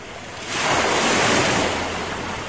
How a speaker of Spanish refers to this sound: Mientras tanto, las olas seguían golpeando al barquito.